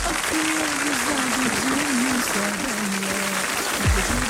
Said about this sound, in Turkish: Geçmiş olsundan sonra kazayı alkışlatmakla tövbe estağfurullah dur. Yanlış girdi yanlış girdi efekt.